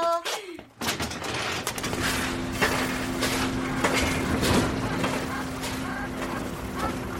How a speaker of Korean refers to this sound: 아, 또, 또, 또. 아, 저 크랜 소리 왕짜증. 이모, 아, 나 진짜 저놈의 공사 때문에 실을 한 줄도 못 쓰겠어요.